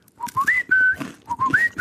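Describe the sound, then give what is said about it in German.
A bus driver on a bus whistles a dog-calling whistle at a passenger: two close, clear phrases, each rising in short steps to a long held high note, with no talking. “Dann nehme ich mal so einen Kopfhörer raus, dann ist der Busfahrer hinter mir, der mich abpfeift.”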